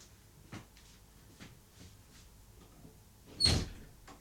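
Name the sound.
door opening and closing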